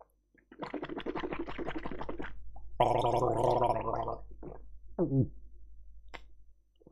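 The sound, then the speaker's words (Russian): Loud wet slurping and smacky chewing noises come in a few long bursts, with a bubbly, gargling quality and short pauses between them; no one speaks. “только благодаря моему сербанью и чавканью ты таки собрался и задонатил 100 рублей”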